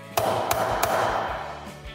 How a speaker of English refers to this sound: I guess we better bang the gavel on this episode.